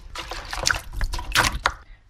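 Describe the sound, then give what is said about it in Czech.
Rattan canes for basket weaving, cut to the height of the basket to be woven, being lowered into water to soak and soften, with a few soft splashes and trickling sloshes over about two seconds, and no talking. “Ty stojínky vlastně si nachystám na výšku toho košíku, který budu plést a dám si ho do vody.”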